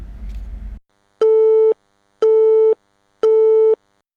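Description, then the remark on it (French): A brief burst of noise gives way to three evenly spaced beeps from a radio show's telephone answering machine, each about half a second long, loud and clear with short gaps between them. “faisons un tour du côté du répondeur de Yanni Radio qui fait son grand retour”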